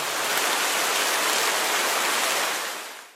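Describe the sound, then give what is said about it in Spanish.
A sudden heavy rain downpour roars as a dense, steady hiss at full strength from the start, loud, then fades out near the end. No voices. “De pronto cayó un aguacero.”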